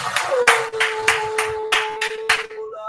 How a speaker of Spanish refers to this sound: Gracias, aplauso, mi hermano, aplauso para el mejunje.